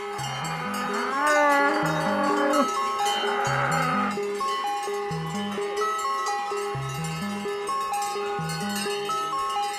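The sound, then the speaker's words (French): Many cowbells clang and jangle together without pause as a herd of cows moves along, every cow fitted with a bell to make as much noise as possible, a dense, ringing metallic chorus with an uneven, lurching rhythm. “Et c'est pour ça que voilà, nous, on aime bien, comme on dit, esquiller toutes les vaches pour, voilà, pour faire un, maximum de bruit, on va dire.”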